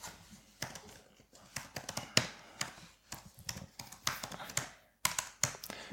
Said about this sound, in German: Ja, dann hau mal in die Tasten.